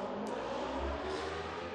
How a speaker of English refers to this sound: that's a motorcycle. Yep. Um, and Hitman is still looks like that's forty-seven riding off into the distance on his Harley. Looks like his, his signature Harley.